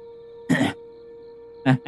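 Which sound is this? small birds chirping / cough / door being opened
cough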